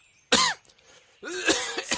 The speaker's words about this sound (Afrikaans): Oei, hoes. O! So dis hoe dit klink as mense hoes.